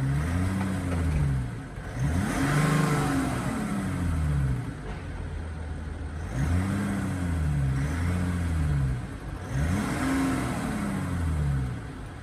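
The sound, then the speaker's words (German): The diesel engine of a GV80 SUV test vehicle revs up and falls back about four times in a steady rhythm, its low, rumbling pitch rising and dropping each time, fairly loud with no one speaking. “Ja, wir haben ja schon gehört ne, durch den Sound, dass unser Testfahrzeug, wozu wir jetzt gleich nochmal äh, intensiver kommen werden natürlich, ein Diesel ist.”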